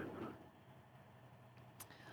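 vehicle, rally car arriving

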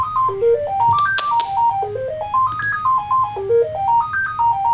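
signal or alarm, telephone ringing

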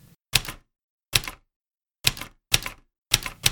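machine, typewriter typing

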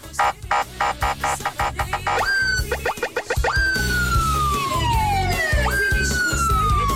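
signal or alarm, police siren

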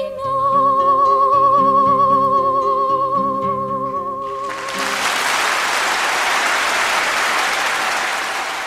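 crowd, concert audience applause

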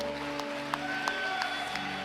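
crowd, church audience applauding

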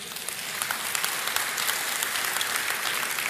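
crowd, audience clapping hands

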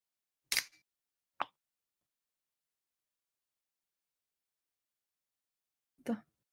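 food or drink, beer can being opened

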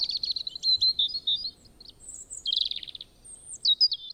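bird, bird chirping

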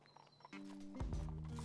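animal, horse hooves clip-clopping

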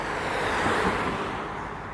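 ambience, traffic

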